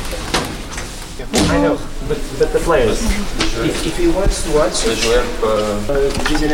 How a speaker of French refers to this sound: Ouverture des portes.